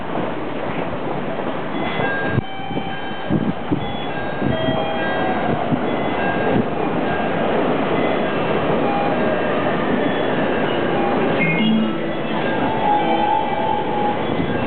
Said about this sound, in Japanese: まもなく1番線に各駅停車中野行きが入ります。危ないですから、黄色線までお下がりください。